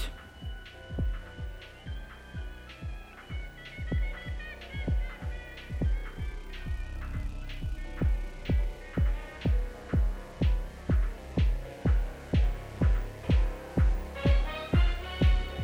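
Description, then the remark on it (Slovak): An instrumental music bed with a steady, thumping bass beat pulsing roughly twice a second under sustained synth tones, playing alone at moderate volume with no voices. “a samozrejme aj pesnička, nejaký hudobný podmas uh, sa vždy hodí”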